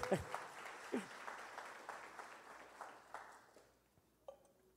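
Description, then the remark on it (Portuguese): A crowd applauds with dense, steady clapping that gradually thins out and fades, while a voice calls out briefly over the start of the applause. “Se aplaude metade, aplaude todo mundo, gente.”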